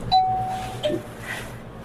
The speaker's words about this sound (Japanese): あれセンサーがおかしくて、時々なるんですよ誰も見えない人が 見えない人が行き来してる